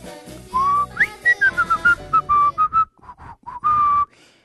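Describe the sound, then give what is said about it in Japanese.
A person whistles a lively melody, a run of clear sustained notes and short gliding phrases with brief breaths between them, alone with no talking. “実は私口笛がめちゃくちゃうまいんですよ”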